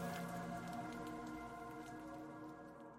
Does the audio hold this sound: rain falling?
yes